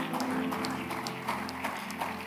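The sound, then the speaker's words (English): A church audience claps together as a clap of offering to the Lord during a sermon, in a dense, steady burst of applause, many hands striking at once with sharp overlapping slaps that fill the space without letting up. “Give the Lord a mighty clap of offering.”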